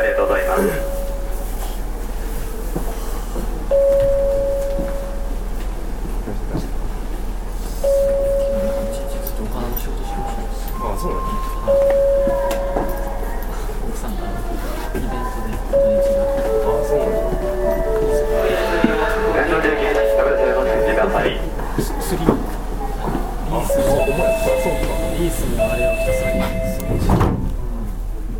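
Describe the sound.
Inside a moving Osaka Municipal Subway 30000 series train, bound for Tennoji, running from Shin-Osaka towards Namba with Yodoyabashi the next stop: a steady low rumble with intermittent tonal whines and rattles, brief clunks, and faint announcements or voices in the background.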